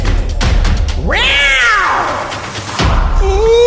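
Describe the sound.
A person imitates a jaguar's roar as a jingle for the 'Oncinha na net' segment: a single loud, drawn-out yowl that sweeps up in pitch and then slides back down over about a second.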